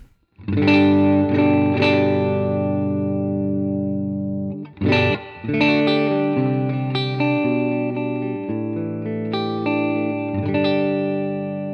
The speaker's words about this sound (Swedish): Eh, vi kan väl lyssna på hur stallmicken låter. Stallmicken rätt in i vår Dream 65 för nu av förstås.